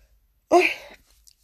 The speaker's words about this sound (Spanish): Eh, que, me venía un estornudo, pero al final no ha venido. Y me, he puesto ahí la, mano para, no estornudar y al final ha sido peor. Tenía que haber estornudado y ya está.